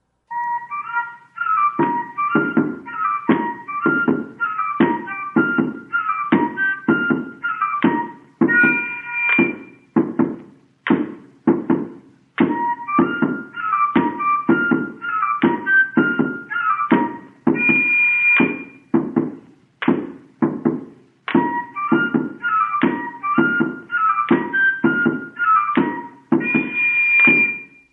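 Recording of the caboclinho Chamada do Rei, Caboclinho folk music: a shrill, piercing flute repeats short melodic phrases over steady, driving percussion hits, loud and continuous throughout, with no voices.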